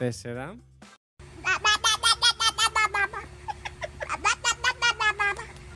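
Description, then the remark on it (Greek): After a brief voice-like sweep, a baby playing with its mother's arm makes a quick, steady run of high, squeaky bursts, about a dozen in a row, loud, with a faint hum underneath. “Λοιπόν, αυτό έφη μου ήταν ένα μωρό που έπαιζε με τον μπράτσο της μαμάς του.”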